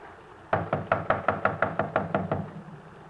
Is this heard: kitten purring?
no